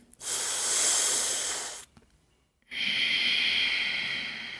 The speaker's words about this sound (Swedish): Så du andas in genom tungan. Sen stänger du munnen och andas ut genom näsan. Så det kan låta lite väsande. Så jag ska se om jag kan demonstrera så jag biter upp tänderna. Sätter tungan precis vid ja, men, tänderna på insidan och andas in.